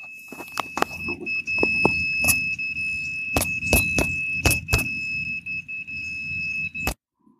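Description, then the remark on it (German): A carp-rod bite alarm emits a steady, high-pitched electronic tone for about seven seconds over low rumble and scattered knocks and clicks, then cuts off abruptly into silence. “Ihr habt erst den Piepton gehört und dann die Pause.”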